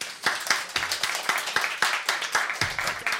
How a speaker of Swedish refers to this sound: En stor applåd till dig.